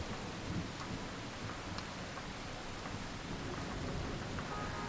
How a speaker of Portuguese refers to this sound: E essa chuva aí vai fazer falta lá em agosto, no meio da seca, hein?